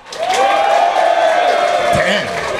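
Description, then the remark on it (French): A live audience breaks into loud, sustained applause mixed with cheering voices, voting by applause for wrestler Liv Morgan over Asuka in an Elimination Chamber special; a dense wash of clapping that holds steady for a couple of seconds before easing slightly. “Les gens qui applaudissent pour Liv, c'est ceux qui s'abonneront à son OnlyFans.”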